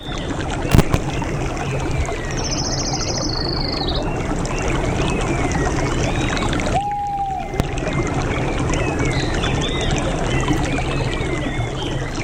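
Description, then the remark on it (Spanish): An outdoor nature soundscape of steady rippling water with frog croaks and scattered bird chirps, including a high trilling call and a sharp whistle midway, playing continuously without any talking. “¿podemos poner sonidos de naturaleza para que la gente capte un poco el concepto?”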